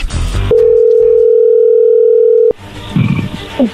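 telephone dial tone

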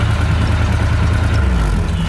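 car engine running

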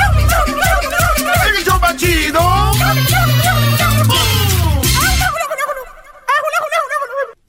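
turkey gobbling

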